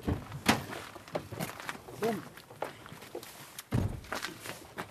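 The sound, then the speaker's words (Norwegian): A door is opened with a few sharp clunks and knocks, followed by shuffling footsteps and muffled movement nearby; faint voices murmur in the background. “Så da åpner du døra.”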